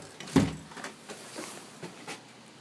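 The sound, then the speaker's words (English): A mausoleum door shuts with a solid thud, followed by a few lighter clicks and rattles as it is locked, against a quiet background with no talking. “I'm just just putting on the putting on the boots and locking the mausoleum door.”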